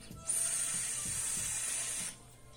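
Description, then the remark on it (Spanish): A steady, airy hiss from an e-cigarette vape hit of a strong home-mixed nicotine liquid lasts about two seconds, starting abruptly and cutting off sharply, with a thin high whistle running through it. No one speaks. “Siento el golpe de garganta, ya no estoy acostumbrado al golpe de garganta, amo las sales de nicotina.”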